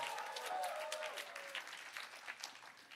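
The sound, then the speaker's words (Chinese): A church audience's Qimu district group of Bible readers claps and cheers for themselves steadily for about three seconds, dense applause with a few raised voices shouting in excitement early on. “七木区欢呼一下给自己。”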